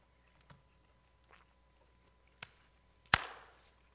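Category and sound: food or drink, crunching potato chips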